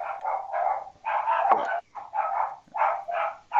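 Two dogs bark repeatedly in quick, overlapping bursts, loud, with a steady rhythm of short barks filling the whole moment and no talking.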